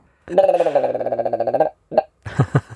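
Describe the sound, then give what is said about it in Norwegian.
A person imitates a willow ptarmigan call: a long, rapid, croaking rattle of about twenty pulses, followed by a short grunt and a couple of throaty clucks. “men det er jo lirypesteigen, da.”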